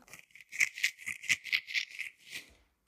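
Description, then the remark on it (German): Crinkly rattling of packets of Waterdrop drink flavour cubes being shaken and handled as they are taken out, a quick series of bright rustling bursts lasting a couple of seconds, with no talking. “Ich hole mal meine ganzen Dings da raus.”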